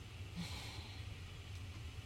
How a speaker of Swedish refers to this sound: Ner i magen och sen tillbaka. Tillbaka. Utandningen alltså? Utandningen. Du kan välja att andas så här.